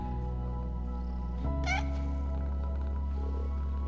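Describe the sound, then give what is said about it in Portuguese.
A single short cat meow rises and falls over a steady low background hum; the meow is brief, with no talking. “Estão cheios de sono os gatos e enrolam-se todos para dormir.”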